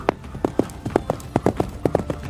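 animal, horse hooves clip-clopping

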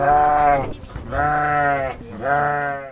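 animal, sheep bleating

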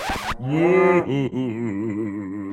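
animal, cow mooing

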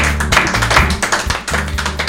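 crowd, applause

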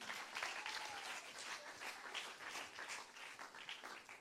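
crowd, audience applause

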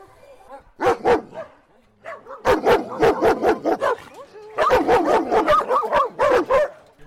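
animal, dogs barking

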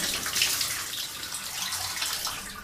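household object, shower water running

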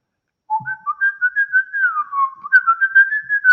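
bird, bird song

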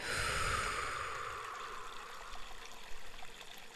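nature, flowing water

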